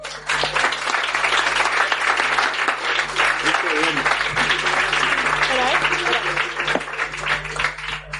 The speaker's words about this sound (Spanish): Aplausos, hombre.